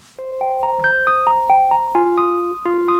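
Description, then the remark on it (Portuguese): A simple, plinky piano melody, the intro of an original 1972 song recording, plays alone, single notes and small chords stepping up and down at a steady moderate pace, clear with a somewhat thin, basic, almost MIDI-like tone. “Bem mais rudimentar o pianinho, né?”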